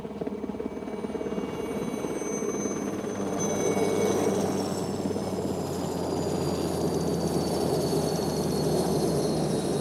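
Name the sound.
helicopter flying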